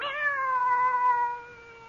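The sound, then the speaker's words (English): A single long, drawn-out cat meow, fairly loud, its tone sliding gently downward before fading at the end, with no voices around it. “So you've come back, and in a form I've always thought of you as a cat.”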